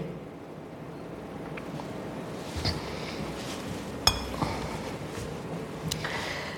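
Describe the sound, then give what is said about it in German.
A glass jar filled with blank paper slips is handled, giving a few sharp, scattered clinks and taps over a steady low background hiss, with no one speaking. “Das Glas hat mir eine Freundin, Eva, vor einem Jahr geschenkt.”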